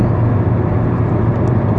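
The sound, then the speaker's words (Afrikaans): Steady low rumble of road and engine noise from inside a car driving home on a Thursday afternoon, a constant dense hum with no voices, holding evenly loud throughout. “Uh ek is op pad huis toe in die kar, soos ek gewoonlik die intro rekord in die kar en ehm um,”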